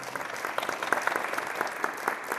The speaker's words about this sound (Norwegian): Han får applaus for visjonene sine og legger fram planene for et anlegg som er tre ganger så stort som dagens museum.